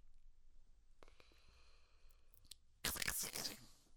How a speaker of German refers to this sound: so war es, dass mitten in der Nacht unsere Helden von einem Geräusch geweckt wurden. Es klang wie ein Rascheln im Gebüsch.